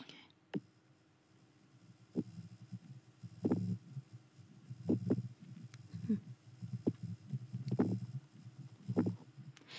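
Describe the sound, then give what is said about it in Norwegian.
A low, murky pulsating hum with soft throbbing beats recurring irregularly, like muffled thuds or water lapping, steady background drone underneath, no clear voices. “det høres egentlig ut som sånn ei pulsering av noe slag”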